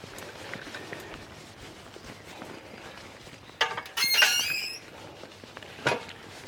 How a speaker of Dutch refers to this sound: Ik heb een piepend tuinhek, zoals je hoort. Menigeen heeft al gezegd waarom ga je dat niet smeren. Maar het is heel handig als je in je tuin bezig bent aan de andere kant van het huis. En je hoort dat iemand het erf op komt.